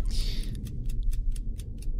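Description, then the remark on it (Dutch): A game clock ticks in a steady, quick rhythm, about eight crisp ticks, starting after a brief bright whoosh, with a low rumbling hum underneath. “Nou, start de klok.”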